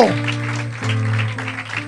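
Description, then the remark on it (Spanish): A church audience claps steadily for a couple of seconds to give thanks to God, the dense patter of many hands blending with a sustained low organ or keyboard chord underneath. “Aplaudan y denle gracias a Dios.”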